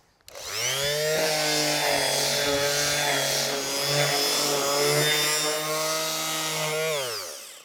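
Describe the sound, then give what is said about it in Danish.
An orbital sander spins up, then runs steadily over a wooden table, sanding along the grain with 120-grit paper, with a buzzing motor whine and gritty rasp before winding down. It is loud and has no talking. “Jeg bruger en rystepusser, så får jeg en pænere ensartet slibning, frem for hvis jeg skulle gøre det i hænderne, så er det også lidt nemmere.”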